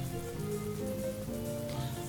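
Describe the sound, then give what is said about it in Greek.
Light rain falls in a steady, even hiss with a soft patter throughout, blended with a low sustained tonal hum underneath, no voices present. “Και τότε άρχισε να πέφτει μια ψυχή βροχή.”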